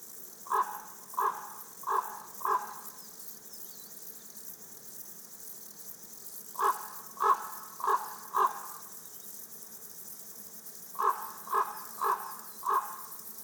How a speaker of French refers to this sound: Je suis installé dans une clairière à enregistrer les, criquets des adrets, Cortipus apricarius. Et là, il y a un grand corbeau qui s'est installé.